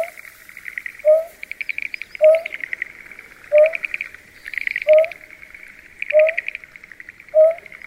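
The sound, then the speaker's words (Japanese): A female greater painted-snipe in a rice paddy next to a nest where a male is incubating gives six low, hollow hooting calls at steady intervals, over a continuous buzzy trilling of insects. “今お聞きいただいているのもオスが抱卵している巣の隣の田んぼで鳴いていたメスの声です”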